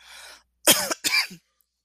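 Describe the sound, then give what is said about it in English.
Two forceful coughs in quick succession, loud, preceded by a brief breathy exhale, with no talking in between. “Excuse me. Um, isn't that a coincidence? Cough, cough.”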